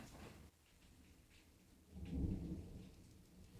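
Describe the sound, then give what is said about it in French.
A low, heavy rumble of thunder swells and rolls for a couple of seconds amid steady rain during a storm, deep, with no voices. “Il y a de l'orage aujourd'hui.”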